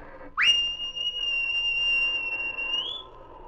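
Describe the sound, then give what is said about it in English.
A single loud, shrill whistle blast from a sergeant calling King. It sweeps sharply up, holds a steady piercing tone for about two and a half seconds, then lifts slightly before cutting off. “He heard the sergeant's whistle and raced toward his master.”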